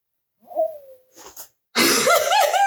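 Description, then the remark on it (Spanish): A stomach growls with a faint, squeaky gurgle that slides downward, followed by soft breathy noises and then a sudden loud, harsh vocal outburst. “Eso ha sido mi barriga y espero, por favor, que se haya escuchado, porque lo voy a dejar.”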